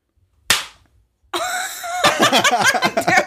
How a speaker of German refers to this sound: Komm, wir fangen nochmal von vorne an. Wir fangen nochmal von vorne an, ja. ja. Okay. Okay. Kommen wir klatschen?